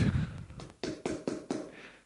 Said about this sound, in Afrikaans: dan staan ek by daai deur en ek klop. En as die TV af en is chupstil nice. Is chupstil. Is chupstil. Dan klop ek.